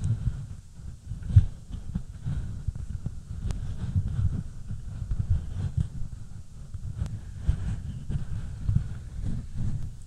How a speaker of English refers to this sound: want to see if I can like cuddle the mic. oh, I got tingles. I got tingles.